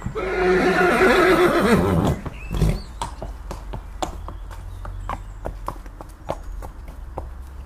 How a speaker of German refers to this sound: Und wirklich, am anderen Morgen kam ein Wagen herangefahren, mit acht weißen Pferden bespannt.